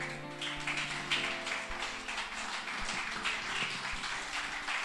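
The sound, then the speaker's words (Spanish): A church audience breaks into steady, dense applause for the King (Christ) during a sermon, holding for several seconds, with sustained low musical tones underneath and a soft low thump about once a second. “Dale un aplauso al Rey.”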